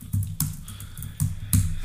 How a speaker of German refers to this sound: Klick, klick, klick, klick, klick. Los, schneller tippen, schneller tippen.